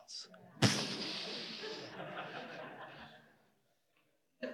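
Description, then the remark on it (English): A voice imitates an explosion: a sudden loud burst followed by a long, rough, hissing rumble that fades out over about three seconds, then brief silence. “Explosion sound.”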